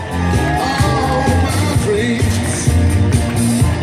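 A loud, sustained burst of audience applause and cheering for a costumed contestant walking on stage, with whoops and shouts rising over steady clapping for nearly four seconds, continuous throughout.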